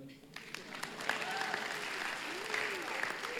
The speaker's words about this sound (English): Can we give praise to the King of Glory? He's so, so good. Maybe clap again so I can have a drink.